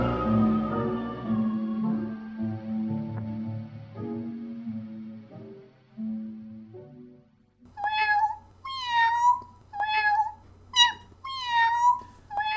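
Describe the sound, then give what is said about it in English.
A short musical jingle for Gumby Cat Productions plays for several seconds, then stops, and a cat meows about five or six times in quick succession, fairly loud, with no talking. “Gumby Cat Productions. Podcasts for podcast people. Meow.”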